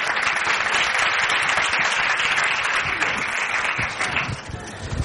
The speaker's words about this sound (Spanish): Si sois tan amables, los voluntarios, un aplauso para nuestra voluntaria, por favor.